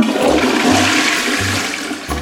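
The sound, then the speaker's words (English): A toilet flushes loudly, a steady rushing swirl of water with a gurgling low rumble that pulses roughly every second, no voices present. “Maybe a kid invented the first flushing toilet.”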